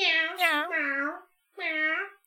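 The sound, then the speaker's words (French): A person imitates a cat meowing twice: a long, wavering, drawn-out meow, a short pause, then a briefer second meow, with nothing else in the background. It imitates the two meows heard on a loop in a film whenever the cat appears. “Euh, dès qu'il y a une scène où le chat apparaît, il y a deux miaulements qu'on entend dans le film en boucle.”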